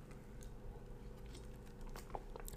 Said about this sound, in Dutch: Eh, oh ja, wat ook nog heel belangrijk is, nog één slokje water.